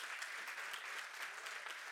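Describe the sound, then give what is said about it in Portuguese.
A church audience applauds the Lord together, a steady dense wash of clapping with no gaps, sustained at an even level throughout. “Porque pode aplaudir o Senhor, porque os oráculos são de Deus.”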